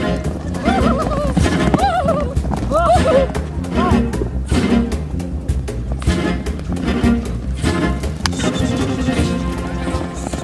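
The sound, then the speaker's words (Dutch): Several horses whinny in quick succession early on at an evening horse show in Mongolia, their calls rising and falling, while hooves clatter steadily over a busy, noisy background with faint crowd murmur. “S eh, S'avonds gaan we naar een, uh, een paardenshow.”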